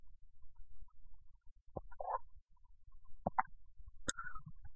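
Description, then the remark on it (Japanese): Gulping sounds from someone swallowing sips of instant coffee, three or four soft wet clicks and gulps spaced irregularly over a quiet low rumble, with no talking. “このね、飲み込む音をちゃんとマイクが拾う拾うんですよね。”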